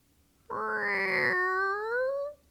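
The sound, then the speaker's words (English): A person imitates a cat with one long, drawn-out meow, loud, rising slightly then sliding smoothly downward before fading out after about two seconds. “Do what's another do a cat sound.”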